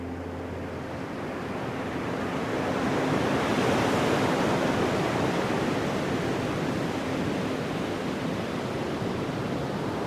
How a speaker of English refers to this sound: At the edges of the land, at the edges of the world, you can see the ocean.